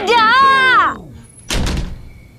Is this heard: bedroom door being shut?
yes